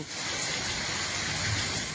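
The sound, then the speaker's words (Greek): A steady, loud roar of floodwater surging through streets turned into torrents after heavy rainfall in Greece fills the whole clip, a dense continuous wash with no pauses and no voices. “Δρόμοι μετατράπηκαν σε ορμητικά ποτάμια, οχήματα παρασύρθηκαν, σπίτια και ξενοδοχεία πλημμύρισαν.”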